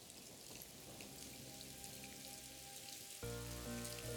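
Steady, dense April rain patters down continuously in the town of Glimminge on Doggerland, filling the scene with a hiss. Near the end a sustained tonal musical sound swells in over the rain.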